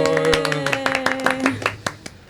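A short burst of applause welcoming the evening's guests, several people clapping in a quick, uneven patter that thins out to a few last claps, with a steady musical tone humming underneath at first.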